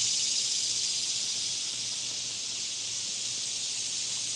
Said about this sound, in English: And even if you're on the podcast, you can hear the sounds here. We have cicadas, we have geese are flapping their wings in the water in the distance that prune themselves. We have a slight breeze hitting the thicket in the middle of the river here,